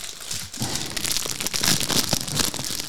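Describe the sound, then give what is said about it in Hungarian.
The wrapper of a Hungarian-style caramel milk chocolate bar is torn and crinkled open: a steady run of dry, crackling rustles with sharp little snaps, continuing for a few seconds with no talking. “Magyaros karamelles tejszelet, egy csokoládé szelet. Nem Köszönjük tudom. szépen, Nagyon finom, beszéljetek addig. De miért te bontod ki?”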